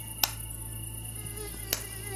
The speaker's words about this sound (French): Mon premier exploit, tuer à main nue un moustique très énervant.